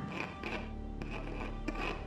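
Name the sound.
cat scratching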